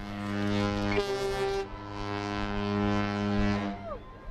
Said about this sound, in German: Beide Eisbrecher lassen die Schiffshörner aufheulen.